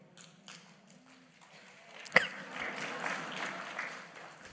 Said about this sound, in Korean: 우리가 한 것도 아닌데 뭐 박수를 치고 돌아가신 분이 했는데